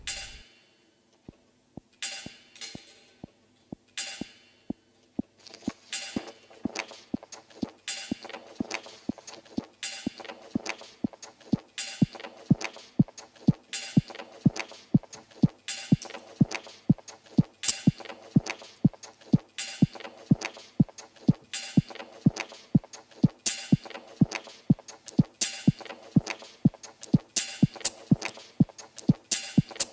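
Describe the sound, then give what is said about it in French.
Clicks and snaps from small desk objects, like a multicolor pen, a stapler, rustling paper and a spinning top, looped into a steady, fast rhythmic beat over a soft tonal hum, with no voices. “La toupie, la feuille, le big 4 couleurs ou la l'agrafeuse de … dans Parlophone en 2016.”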